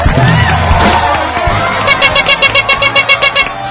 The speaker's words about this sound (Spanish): Mejor escucha este aplauso que el público tiene para ti.